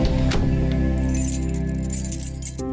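A bunch of keys jangles and clinks with bright metallic rattles, fairly clear, over a steady low musical bed, with no one speaking.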